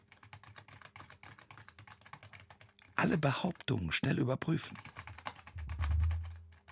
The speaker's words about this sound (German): Kennen Sie das? Leute, die mit einem telefonieren und gleichzeitig auf der Tastatur verdächtige Geräusche machen.